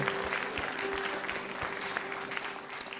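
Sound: audience applauding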